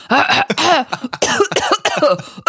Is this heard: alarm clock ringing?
no